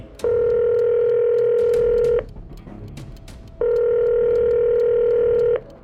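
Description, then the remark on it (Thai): Two long, steady ringback tones sound, each lasting about two seconds with a pause between them: a father's phone call to his child ringing on the other end with no one picking up. “ไม่ค่อยรับโทรศัพท์พ่อเลย”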